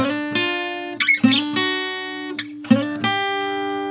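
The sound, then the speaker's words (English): An electric guitar picks back and forth between two sustained notes, each ringing out with rich overtones, in a steady repeating pattern with no voices over it. “Quit hitting those two notes is what I'm gonna do.”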